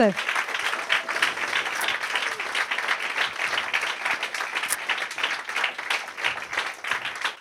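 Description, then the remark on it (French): An audience applauds feminist authors steadily for several seconds, a dense, sustained wash of many hands clapping at once, even in loudness throughout. “Donc vous allez pouvoir les applaudir ainsi que Sarah Pepp, grande autrice féministe également.”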